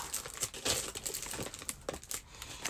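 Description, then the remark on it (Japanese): A plastic bag of Seven-Eleven edamame chips crinkles and rustles in irregular bursts as someone struggles to pull it open without scissors, with no one speaking. “まずはですね、そうやな、前回、えー、前回も出したセブンイレブンの、えー、素材の美味しさ枝豆チップスっていうのを食べたいと思います。開かない。”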